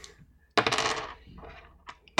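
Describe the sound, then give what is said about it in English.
Dice clatter onto a hard table, starting with a sharp rattle that quickly fades, then a couple of small clicks as they settle, showing a nine. Fairly loud, with no talking. “That is a nine on the dice.”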